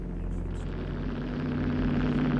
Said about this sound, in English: And then you hear motorcycle coming.